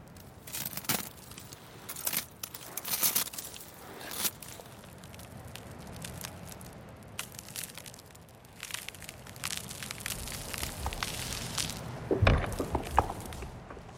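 Crunching snow underfoot high in the mountains, a steady series of crisp, irregular crunches, growing denser and louder toward the end, with no voices.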